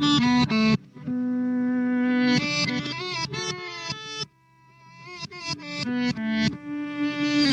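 A psychedelic rock passage with heavily distorted, effects-laden electric guitar: loud sustained notes that bend and waver, broken by short choppy bursts, with no singing.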